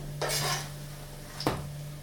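The edge of a thin crepe, cooked on one side, is pried up from a hot pan with a soft scraping rustle, then drops back with a single flat slap, over a low steady kitchen hum.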